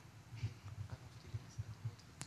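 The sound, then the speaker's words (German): Quiet clicking of a computer mouse, a few soft taps over a low muffled rumble, ending with one sharper, crisper click. No one speaks. “Kann ich nicht einfach nur klicken?”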